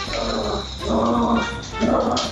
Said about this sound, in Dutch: Volgens mij horen we de hond, of niet?